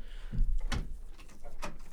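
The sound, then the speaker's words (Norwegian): A door being closed in a studio: a low, muffled thump followed by two short, sharp clacks as it latches. There is no talking, only a faint room hum underneath. “Jeg skal bare lukke den døra.”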